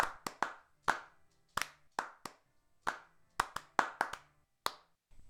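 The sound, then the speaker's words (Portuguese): Hands clapping in a loose, uneven rhythm, about a dozen sharp, crisp claps, some landing in quick pairs, with no voices in between. “gente, por favor, batam palmas.”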